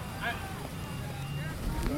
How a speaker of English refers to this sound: The, it's, the truck is inching forward.